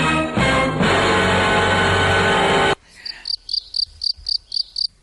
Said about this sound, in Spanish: Uy, sonó el teléfono. Llaman. ¿A quién nos llaman?